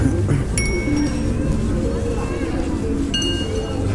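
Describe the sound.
A child strikes the bells of a small chime set on a playground, one children can turn and make noise with, twice, each hit ringing out briefly and bright, a few seconds apart, over a steady outdoor backdrop of voices and wind.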